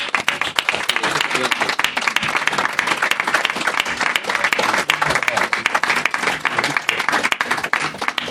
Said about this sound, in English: He deserves a huge thank you and a huge round of applause.